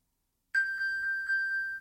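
A steady, high electronic ringing tone starts abruptly and pulses rhythmically for over a second, clear, like a phone's find-my-device alert with no talking; the phone's locator tone is triggered from a smartwatch to find the phone.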